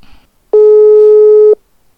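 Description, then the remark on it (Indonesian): A single steady electronic ringing tone from a WhatsApp phone call to a friend, lasting about a second, loud, then quiet. “jadi gue mau bikin podcastnya nggak sendirian lagi seperti biasa gue podcastnya melalui telepon WhatsApp bareng teman gue langsung aja kita telepon teman gue ya”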